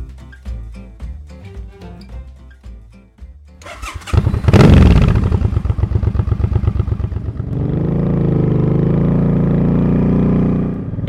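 motorcycle riding

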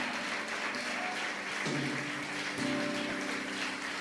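audience applause

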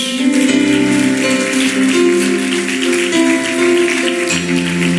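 audience applauding

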